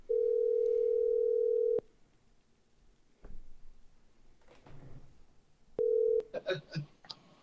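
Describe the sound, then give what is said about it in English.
A telephone ringback tone on a call to the caller's mother hums steadily for about two seconds, falls silent, then starts again and is cut short by clicks and a brief jumble of line noise as the call connects. “So I called my mom and had a conversation with her, and I recorded it.”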